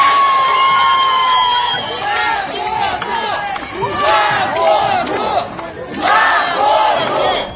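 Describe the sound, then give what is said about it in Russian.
A large street protest crowd in Khabarovsk, Russia, chants and shouts in loud, overlapping waves, many voices rising and falling together with bursts of whistling and cries throughout. “В Хабаровске продолжаются массовые протесты”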